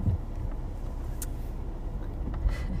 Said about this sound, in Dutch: Ik zit weer in de auto naar. Eh, mijn sportschool.